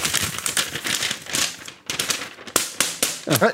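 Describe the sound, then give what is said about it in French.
Loud crinkling and tearing of paper in a series of quick rustling bursts, with a brief gap midway and a short vocal sound near the end. “Ça aussi, dans les années 80, il n'ouvrait pas des feuilles hein, de, papier en deux.”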